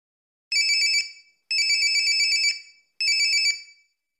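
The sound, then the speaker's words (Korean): A mobile phone ringtone for an incoming call chimes in three bright electronic bursts, each about a second long with short pauses between, clear with no voices around it. “그해 가을 핸드폰으로 전화가 왔다고 했다.”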